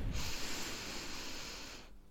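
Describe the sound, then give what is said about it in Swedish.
A long, steady inhale drawn in through the nose, with a soft airy hiss that holds for nearly two seconds before stopping abruptly, the in-breath of the 4-7-9 breathing technique for falling asleep. “4-7-9 är så här, du andas in 4 sekunder.”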